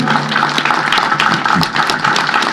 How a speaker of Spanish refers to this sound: Aplausos para nuestros congresistas también de orígenes contumacinos en esta mañana en nuestra Plaza de Armas de Contumazá.